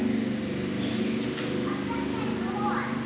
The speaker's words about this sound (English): I'm going to wait for this motorcycle to go by.